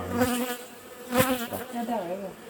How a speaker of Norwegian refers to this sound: Og hvis du ser bak dronningen, så ser du en sånn fem-seks bier som er de samme biene som følger etter hele tiden.